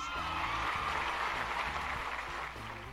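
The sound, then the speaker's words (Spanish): Steady applause on a Thursday radio show, for its listeners, with a dense, crackling clatter of many hands lasting about three seconds, holding level before easing slightly at the end, with a low rhythmic bass line underneath and no talking. “Entonces, un aplauso también para todos los radioescuchas que están del otro lado en esta frecuencia tóxica de jueves.”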